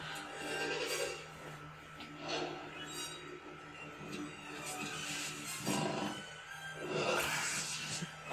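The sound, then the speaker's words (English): A low, raspy velociraptor purr from a film rumbles steadily throughout, with breathy rasping bursts swelling louder near the end, all at a moderate level with no talking. “the little purring noise they make.”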